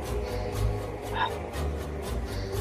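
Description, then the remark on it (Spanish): A voice imitates forceful breathing through the nose: a string of short, breathy puffs repeated at a steady rhythm, fairly loud, over a low rumbling background. “Como que con la nariz, ah, como, que, me echaban el aliento con la nariz así Nasal.”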